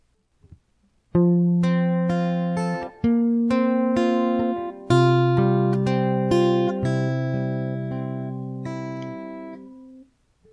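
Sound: song playing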